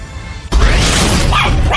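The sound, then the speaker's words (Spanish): After a brief quiet lead-in, dogs at a shelter in San Juan de Abajo, which houses more than 100 dogs, break into loud barking, with several sharp yips and yelps overlapping in a dense, noisy burst. “Ya arrancó el Croquetón 2019 en apoyo al albergue de San Juan de Abajo que tiene más de 100 perritos.”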